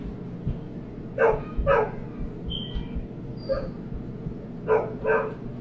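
A dog barks in two pairs of sharp, fairly loud yelps, with high thin whimpers in between, against a low steady background rumble.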